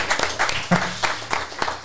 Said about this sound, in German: Applaus für uns. Ja. Aha. Danke.